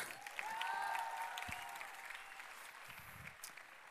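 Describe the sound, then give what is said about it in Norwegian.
An audience claps for the makers of a heart brought onto the stage, a dense patter of many hands that swells quickly and then gradually tapers off, with a few faint whoops mixed in early on. “Kan, vi gi en applaus til de som har laget denne her?”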